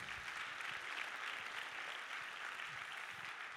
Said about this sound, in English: Let's clap our hands to the Lord tonight in Jesus' name.